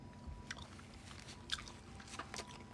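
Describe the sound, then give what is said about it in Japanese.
Chewing sounds of someone eating spicy curry, wet and squishy with a few sharper crunchy bites, repeating steadily over a low background hum with no talking. “あれ収録的に咀嚼音がしますんですみません。”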